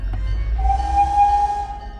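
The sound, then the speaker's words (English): A miniature steam locomotive's whistle, blown by the conductor as the train pulls away toward Eden Springs Park in Benton Harbor, sounds one steady, clear tone for about a second, wrapped in a rush of hissing steam over a low mechanical rumble, fading out at the end. “After a brief moment, the bearded conductor blew the steam whistle and the train slowly pulled ahead into the commune.”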